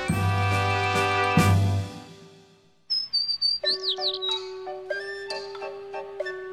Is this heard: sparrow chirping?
yes